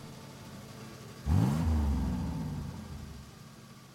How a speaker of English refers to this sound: I start up the car and start heading back towards the office.